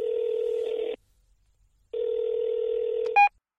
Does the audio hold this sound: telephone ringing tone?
yes